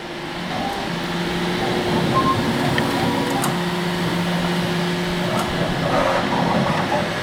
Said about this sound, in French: C'est une imprimante Elle fait. Elle produit maintenant des supports pour un pour un PCB. de pièces comme ça. Des pièces en plastique euh, qui vont être testées maintenant euh, sur euh, différents drones